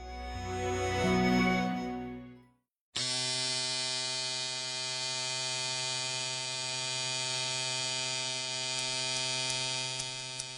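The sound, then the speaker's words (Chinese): Electric hair clippers buzz in a steady, bright, harmonic drone for about eight seconds, preceded by a shorter, lower, wavering buzz and a brief moment of silence. No one speaks. “听到这样的声音，是不是有人特别受不了呢？但同时呢，也有很多的人猜出了我们第二个要说什么。第二个，我们来说一说美发博物馆。”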